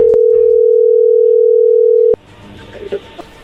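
A steady, loud telephone dial tone hums at one pitch for about two seconds as a phone call is being placed, then cuts off abruptly, leaving faint line noise and a few soft clicks.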